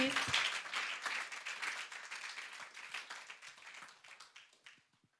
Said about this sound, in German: Applaus an alle. Mega cool. Applaus. Dankeschön.